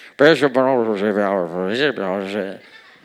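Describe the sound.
A voice imitates a garbled, muffled New York City subway loudspeaker announcement, a continuous stream of unintelligible, nasal mumbling lasting about two and a half seconds, loud throughout.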